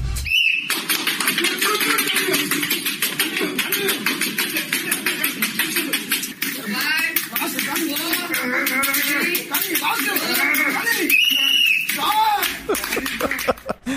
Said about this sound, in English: This guy uh, broke the world record by smashing 273 walnuts with his forehead. That's what he was doing.